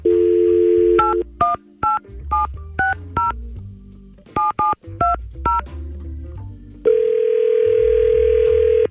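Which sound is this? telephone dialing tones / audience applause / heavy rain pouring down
telephone dialing tones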